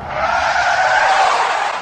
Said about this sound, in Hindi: अबे गाड़ी क्यों रोकी इतनी तेज ब्रेक कोई लगाता है क्या